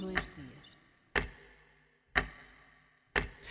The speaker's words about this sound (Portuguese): Perdão, Vou só aqui desligar na voz o efeito que estava para o relógio.